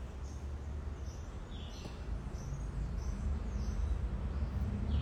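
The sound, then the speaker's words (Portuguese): Faint, scattered chirps from two small songbirds with different songs in a garden, repeating irregularly over a steady low rumble of outdoor background noise such as traffic. No one speaks. “Eu estou ouvindo dos passarinhos.”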